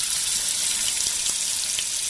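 A steady, bright sizzling hiss like food frying in a hot pan, with a few faint crackles and pops scattered through it, loud with no voices.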